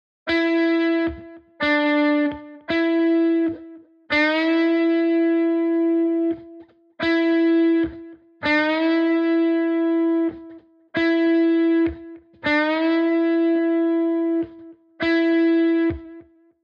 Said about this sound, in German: Diese ganze Spielerei kannst du jetzt mit einem Ganztonbanding machen. Nimm ruhig denselben Zielton, aber jetzt startest du zwei Bünde tiefer, also einen Ganzton tiefer. Das würde dann in etwa so klingen.